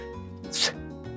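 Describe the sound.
A single voice demonstrates the English "th" sound, sustaining a buzzing, voiced fricative with the tongue between the teeth for about a second; the breathy hiss swells loudly in the middle before easing back to the humming tone. It is isolated, with no words.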